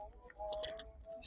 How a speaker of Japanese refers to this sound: ほら、こんなにさ、亀がさ、キャベツ食べるとこよく見れないよ。皆さんにちょっと、キャ亀がキャベツを食べる音を聞かせたい。